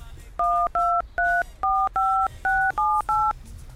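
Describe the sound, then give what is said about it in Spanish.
Eight quick two-tone telephone keypad beeps in a steady, evenly spaced run, loud, as another phone number, the landlord's, is dialed over a low background rumble. “Llama al otro número entonces, por pues, que te dejé, el del, el del casero.”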